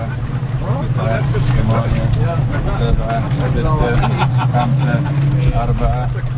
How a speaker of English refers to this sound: A 16 foot whaler carrying a team of divers plows through the choppy waters off Saadiyat Island a sandy man made landmass just north of Abu Dhabi city.